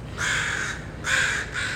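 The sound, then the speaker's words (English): Ravens calling with three harsh, raspy croaks in quick succession; the first is long and the next two are shorter. They are loud over a low background rumble, with no talking. “And just like those horses and sheep, well, and the awesome ravens.”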